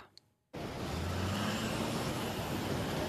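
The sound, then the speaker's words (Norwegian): Busy city street traffic in New York starts abruptly after a brief quiet moment, a dense, steady roar of cars and heavier vehicles with low engine rumble, loud, no one talking. “I New York går trafikken igjen som normalt etter bombeangrepene lørdag kveld, men noe er likevel annerledes.”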